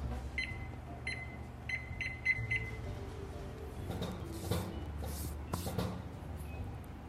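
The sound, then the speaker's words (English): A kitchen timer being set for 25 minutes as a pan of dough goes into the oven gives about six short, high electronic beeps at an uneven pace as its buttons are pressed, followed by soft rustling and handling noises. “Okay, set a timer for 25 minutes.”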